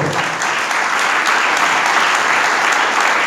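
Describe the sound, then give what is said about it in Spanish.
A church audience applauds for the Lord together, a dense, steady wash of many hands clapping at an even loudness for the whole stretch, with no voices standing out. “Si le van el aplauso, eso al Señor, por favor.”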